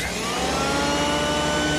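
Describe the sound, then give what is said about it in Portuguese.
A vacuum cleaner runs steadily and loudly, a continuous motor whine with a broad rushing hiss and rising tonal hum, no voices present. “Este é o episódio sobre o aspirador.”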